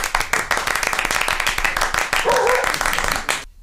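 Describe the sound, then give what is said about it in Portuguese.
A burst of lively applause for a guest on a programme, many hands clapping quickly and steadily for a few seconds, with a voice briefly audible in the mix before it cuts off abruptly. “Gente, uma saúva de palmas para minha amiga”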